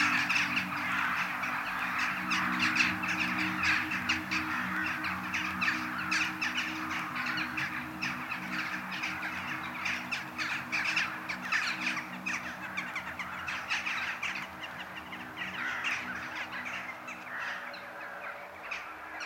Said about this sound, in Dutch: Die kou is eh, familie van de kraaien, is een pak kleiner dan een kraai. Uh, kenmerkend is natuurlijk wel die grijze kop ehm, en die witte iris, eh, waardoor dat ze eigenlijk iets heel sprekends krijgen, iets aaibaars bijna.